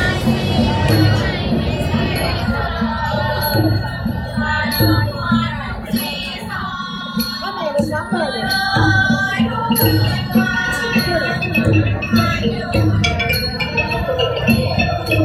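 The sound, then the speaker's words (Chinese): Traditional Thai music played by musicians at a Buddha shrine in Thailand: four to six girls in traditional costume sing together while dancing a roughly one-minute song paid for by worshippers, over a steady, regular drum beat and plucked or struck instruments, loud and continuous throughout. “旁边有乐师的，会弹奏一首传统的泰国乐曲，然后那个大概四个或者六个姑娘，看你给多少钱啊，传统的那种服装的，就起来一边唱一边跳一首大概一分钟左右的歌曲啊。”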